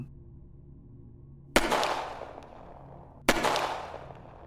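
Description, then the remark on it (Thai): Two sharp pistol gunshots, about two seconds apart, each a loud crack with a brief decaying tail, over a low steady background hum with no talking; a man who switched from a shotgun to a pistol is firing at his brother. “เทรเปลี่ยนจากปืนลูกซองเป็นปืนพก และยิงไปที่พี่ชาย”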